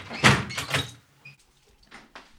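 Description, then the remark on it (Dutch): A heavy church double door is pushed open with a loud rumbling scrape in two quick bursts, followed by softer knocks and shuffling as it settles. No one speaks. “Oh, dubbele deur.”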